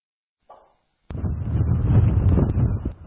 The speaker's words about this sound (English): We're in Grand Étang, Nova Scotia. This is home of les suêtes winds, southeasterlies. They're more easterly right now, gusting uh, about 170 kilometers per hour. You can't quite look the wind in the face because your face gets sandblasted.